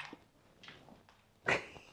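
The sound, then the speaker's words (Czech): A dog adopted from a shelter lets out a brief, sharp whimper after a stretch of soft shuffling and light movement noises; otherwise quiet, with no one talking. “To je pejsek Ben, no, toho jsem si vzal z útulku”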